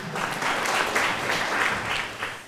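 An audience in a church breaks into steady applause, a dense, continuous patter of many hands clapping at an even loudness for a couple of seconds with no one speaking.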